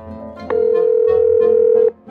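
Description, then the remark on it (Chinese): A steady, mid-pitched telephone dial tone hums without a break for about a second and a half as a kindergarten teacher phones a child's father, then cuts off, with soft music-like sounds underneath. “一直到全部同学都走光了，老师打电话给爸爸。”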